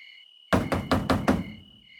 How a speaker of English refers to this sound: So I went to the door and I was like, "Who is it?" And it was such a loud knock. Think about how police officers knock.